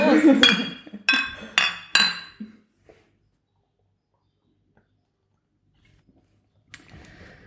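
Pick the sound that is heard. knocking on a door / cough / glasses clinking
glasses clinking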